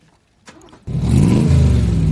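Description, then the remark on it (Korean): A motorcycle engine cranks with a few clicks, then catches and roars into a loud, steady idle with a throaty rumble, with no talking. “오토바이 시동 거는 소리입니다.”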